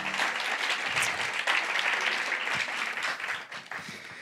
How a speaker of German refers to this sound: Lass uns auch der Band mal eben noch einen Applaus geben. Danke, dass ihr uns mit reingenommen habt.